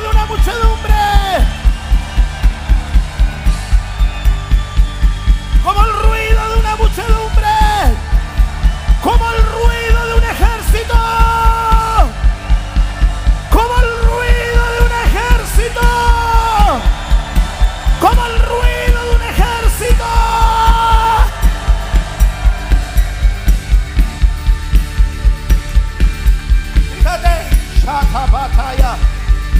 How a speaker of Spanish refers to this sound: A la cuenta de tres, como el ruido de una muchedumbre. Uno, dos, tres. Como el ruido de una muchedumbre.